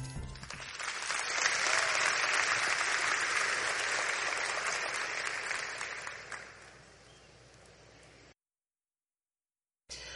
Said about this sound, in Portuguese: Recebam com uma salva de palmas